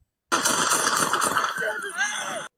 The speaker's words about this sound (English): And that is, uh, gunfire that you're hearing. So they use deadly force.